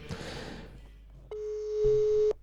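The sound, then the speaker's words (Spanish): A telephone line ringing tone sounds once as a steady, clear beep lasting about a second, on a call placed live on air during a radio show, following a short burst of muffled rustling noise. No one speaks. “Sí, sí, está sonando, así que va.”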